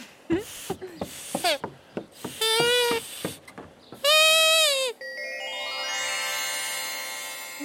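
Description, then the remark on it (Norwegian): Shrill, squawking squeals from a grass blade whistle blown between the thumbs come in short bursts, then two longer wavering blasts, followed by a sustained rising tone. “Legg gresstrå mellom tomlene og blås hardt, så du lager en pipende lyd.”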